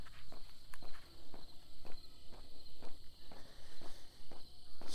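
Steady footsteps crunch along outdoors at an even walking pace, about ten steps, with a constant high insect or cricket drone in the background and no talking.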